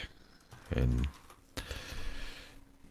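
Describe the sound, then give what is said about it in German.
A single sharp computer mouse click, made to refresh a page, snaps out partway through, preceded by a brief muffled voiced sound and followed by a low background hum. “Ähm, kann man mal, kann man das mal aus äh, auf aktualisieren klicken. Klicken.”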